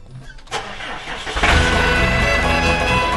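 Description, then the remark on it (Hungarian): The small engine of a motorized cultivator cranks and catches at about half a second, then revs up and settles into a loud, steady, rumbling run. “most felpattant egy kultivátorra”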